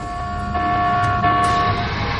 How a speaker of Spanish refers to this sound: Y lo que hice fue buscar y encontrar que podíamos hacer sonar nuestra propia alarma de zafarrancho de combate, que sería una sirena de batalla de la Segunda Guerra Mundial.